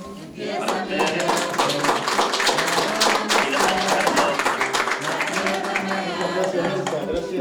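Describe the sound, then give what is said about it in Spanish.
An audience claps steadily for several seconds to close a presentation by CEPA students, a dense, continuous burst of applause that stays fairly even in loudness throughout. “Muchas gracias una vez más a Elsa López por su participación y mil gracias también al alumnado del CEPA del de Casco por la presentación del trabajo realizado y queremos despedirnos con un aplauso por este, de, esta intervención.”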